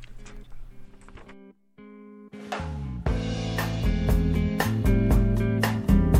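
A rock song opens with a quiet, sparse guitar figure and a brief gap, then the full band kicks in loudly with steady pounding drums and thick, distorted guitars. No singing yet.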